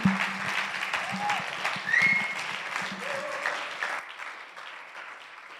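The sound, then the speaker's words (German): Audience applause, a dense patter of clapping that holds steady for about four seconds, with a few faint voices mixed in, then thins out and fades into quiet. “Applaus”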